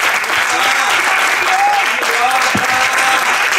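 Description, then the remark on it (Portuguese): A crowd bursts into steady, dense applause for a speaker who has just finished a talk, many hands clapping at once in a loud continuous wash, with a few faint voices and whistles rising through it. “Salve de palmas.”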